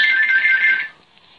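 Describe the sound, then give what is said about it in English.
A phone rings with a bright electronic tone, one steady burst lasting under a second before cutting off, clear with no voices. “Sorry about the phone call.”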